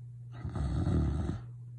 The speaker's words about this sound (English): All that can be heard from my supposed sister, which I didn't know at the time, was the loud snoring of the would be emperor of the universe.